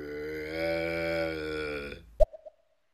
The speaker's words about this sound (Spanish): Y ahora de repente al final viene un ruido. Ojo que no sea un grito, ¿eh, chicos? Ah, vale, pero no, ha sido. Digo, esto va a ser un eructo, pues casi. Ni siquiera le ha puesto gana.